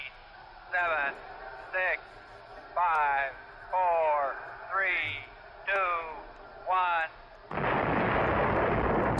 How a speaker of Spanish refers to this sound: Eh, es el sonido de un cohete despegando